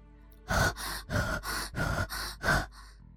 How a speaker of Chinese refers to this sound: 寂静的工棚里，除了老刘深沉的呼吸声，再也没有其他的声音。